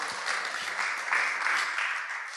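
A crowd applauds steadily as a reward for people who have just been thanked and seated, a dense wash of many hands clapping at once, sustained and fairly loud with slight swells, no voices standing out.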